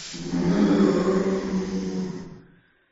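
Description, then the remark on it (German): A deep, rumbling roar with a breathy, snorting rasp comes from a south tower, swelling for a couple of seconds, then trailing off into silence. It is fairly loud, like a large creature, with no talking. “Du hörst aus diesem Südturm so ein schnaufendes Brüllen.”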